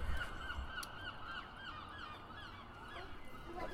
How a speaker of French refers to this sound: Il y a un son. Il y a des oiseaux qui crient quand ils ont besoin d'aide.